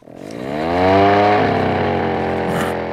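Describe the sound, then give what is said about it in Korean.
A motorcycle carrying a passenger on its back seat revs up and pulls away, heading to a butcher shop in town. Its droning pitch climbs over the first second and then holds at a steady, loud roar with no talking. “그렇게 우리는 태어나서 처음으로 오토바이에 타게 된 겁니다. 자, 출발!”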